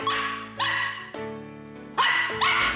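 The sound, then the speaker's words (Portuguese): A husky puppy barks in about five loud, high-pitched, drawn-out yelps that come in quick succession with short gaps, with no one talking. “Você viu como é fofo o cachorrinho husky que ganhei de aniversário?”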